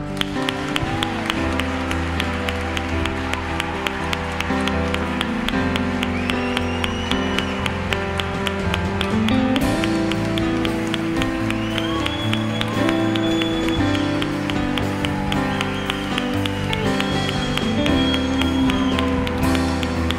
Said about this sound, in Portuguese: Então nós vamos fazer isso com o termômetro das nossas palmas, tá bom? Você que está em casa está convidada para participar com a gente. Então vamos lá. Um, dois, três, já!